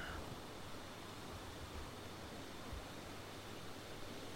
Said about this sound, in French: Écoutez quelques instants les vagues qui vont et viennent. Vous êtes bercé par le rythme des vagues, calme, apaisante, régulière.